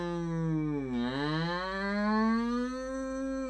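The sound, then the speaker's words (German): A loud German civil-protection air-raid siren wails on its own, its droning tone dipping briefly in pitch and then slowly climbing again in one continuous sweep. “Das ist die Sirene.”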